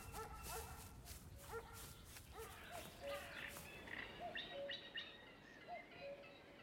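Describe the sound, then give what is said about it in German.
A large German shepherd barks repeatedly in quick, loud bursts as it races from the direction of a house toward a person at a fence, the barking easing off partway through while birds chirp and tweet in the background. “Ich habe eine Hand auf den Zaun gelegt, da kommt ein riesiger Schäferhund aus Richtung des Hauses auf mich zugerast.”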